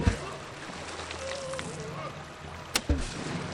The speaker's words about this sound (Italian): Cos'è questo rumore? Spero che non si stiano gettando in acqua. No, no! Stanno lanciando pietre, no, ma che dico pietre, macigni, bersaglia di nostri inseguitori!